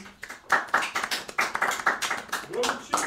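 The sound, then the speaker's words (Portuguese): A short burst of hand clapping from a bathroom, a dozen or so sharp, uneven claps at a moderate loudness, with some faint voice sounds mixed underneath. “Palmas do banheiro, a, a quarta parede puxou as palmas ali”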